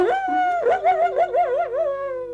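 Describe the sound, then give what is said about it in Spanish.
A human voice imitates a coyote howl: one sustained, high, harmonic wail that slides upward, then wavers in a quick warbling vibrato before holding steady, heard alone without talk. “Y el muchacho llora, truena los dedos, grita como el coyote.”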